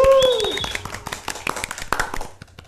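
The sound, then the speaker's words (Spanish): A short burst of applause from a small group welcoming a guest, quick irregular hand claps, with a high whooping cheer at the start and voices mixed in before it fades. “Un aplauso.”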